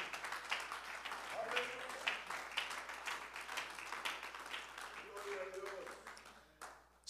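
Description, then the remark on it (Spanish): A church audience applauds the presence of God with dense, steady clapping that fills about seven seconds. A few voices call out beneath it before the applause thins out at the end. “Alguien puede aplaudir la presencia de nuestro Padre Celestial.”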